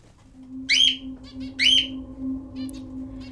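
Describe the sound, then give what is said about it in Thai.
Two shrill, rasping screeches of a barn owl flying past a houseboat ring out, about a second apart, over a steady low hum and faint background noise. “ที่เรือนแพของนายชาวเรื่องนกแสกบินผ่านบ่อยๆ อันนี้ถือว่าธรรมดาที่สุด คือปกติเนี่ย ก็จะนิ่งเฉยเวลาที่มีนกแสกบินผ่าน มันจะผ่านกี่ตัวมันจะร้องบาดหัวใจขนาดไหนก็ช่างมัน”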